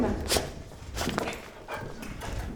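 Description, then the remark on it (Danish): Footsteps descend a staircase into a residence, with a dog at the bottom: about six uneven thuds spaced roughly half a second apart, moderately loud against a dull, rumbling background. “Nu går vi ind i beboelsen. En trappe og en hund nede for enden.”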